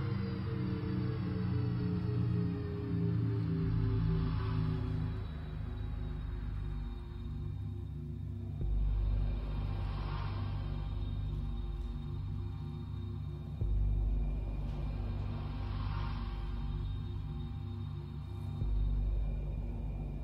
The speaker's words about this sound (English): And the thing that I want to say is this sound was not created by a sound designer, but it was created by a composer. Then we asked a composer to imagine the music of an electric car.